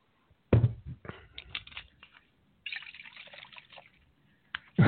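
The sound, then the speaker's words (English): Jose Cuervo Especial Gold tequila glugs and splashes into a glass in uneven bursts, with a brief pause before a second stream of pouring and a final splash at the end. No one speaks. “what, what, do you got pouring there?”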